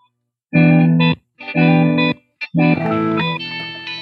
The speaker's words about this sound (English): But what's the first chord that you got there? E minor seven with like a hammer on kind of.